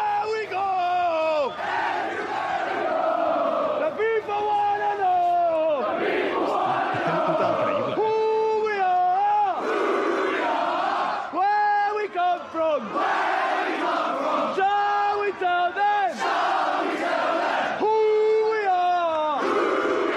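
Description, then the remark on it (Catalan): A rowdy drunken crowd bellows a battle cry, loud drawn-out yells rising and falling in repeated bursts with barely a pause, forceful throughout. “Va crit de borratxo espectacular.”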